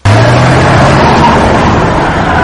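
The engine of a Plymouth Valiant fleeing a tanker truck in Steven Spielberg's film Duel (El Diablo sobre Ruedas) roars loudly and steadily for a couple of seconds, a deep low rumble with a hissy rushing layer on top, cutting in abruptly at the start with no voices.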